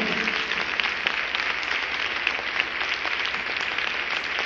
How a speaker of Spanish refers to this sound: Demos un aplauso al Rey. Con ganas, aplaude al Rey.